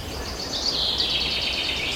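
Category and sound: bird, common chaffinch song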